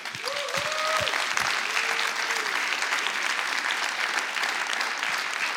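Loud, sustained applause from an audience, given for people who help others discover and experience Jesus, a dense steady clatter of many hands clapping throughout, with a couple of brief cheering whistles near the start.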